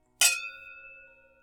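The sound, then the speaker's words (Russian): A single bright clink of glasses touching in a toast, ringing out with a clear sustained tone that slowly fades over a second or so, fairly loud, with no talking. “У тебя что, бокала нового?”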